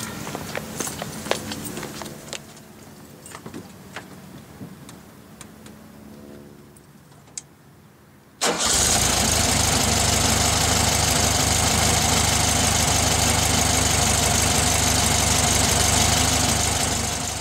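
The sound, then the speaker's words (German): An old VW Beetle engine idles with a low, uneven chug and scattered ticking, then about halfway through it abruptly swells into a loud, steady roar that holds to the end. “Ein VW Käfer war es jedenfalls, ein altes Autochen.”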